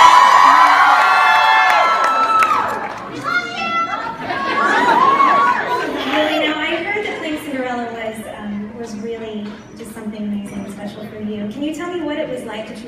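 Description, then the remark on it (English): A large theater crowd that has just watched a movie screening cheers and whoops loudly, with excited shouts and chatter rising over one another, then the roar settles into a busy murmur of voices as individual people call out. “Tonight, this crowd just saw the movie and they loved it.”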